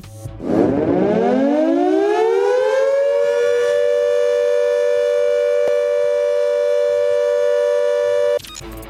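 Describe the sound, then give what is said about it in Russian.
A civil defense air raid siren in Russia, sounded during a check of the public warning system as a warning of air attack, winds up from a low growl to a loud, steady wail, holding one sustained tone for several seconds before cutting off abruptly. No voices are heard. “Во всех субъектах России люди услышат сигнал тревоги и предупреждение об угрозе нападения с воздуха.”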